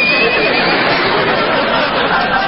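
A toy horse lets out a loud, tinny electronic whinny that runs unbroken for about two and a half seconds, with no talking over it.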